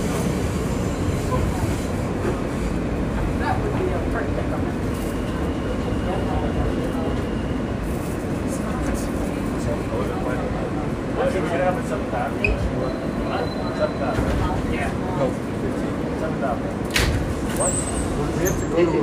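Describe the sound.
Steady, loud rumble of a moving Coney Island–Stillwell Avenue bound F local subway train on a weekend, heard from inside the car, with continuous wheel roar, occasional metallic clicks and rattles, and faint indistinct voices under the noise.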